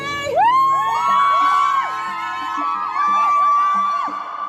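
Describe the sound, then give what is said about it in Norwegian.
A crowd of fans standing outside a courthouse cheers and shouts to Johnny Depp as he heads into the courtroom, many raised voices overlapping in drawn-out calls and whoops. The sound stays loud for several seconds without a break. “Da Depp var på vei inn i rettslokalet, så sto det en haug med fans på utsida og ropte til han for å oppmuntre han.”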